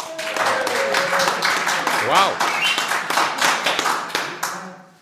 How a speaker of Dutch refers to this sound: En ik hoop dat jullie hem allemaal een heel groot applaus geven, want er zijn eh, live mensen bij. Niemand minder dan wielerlegende Steven Rooks.